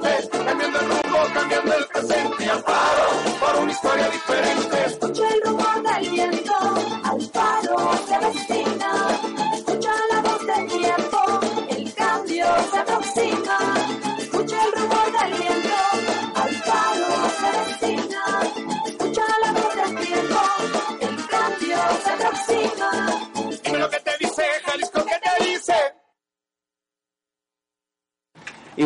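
A Spanish-language political campaign song plays on a radio broadcast, loud and upbeat with a full band, for about twenty-six seconds, then cuts off abruptly into silence.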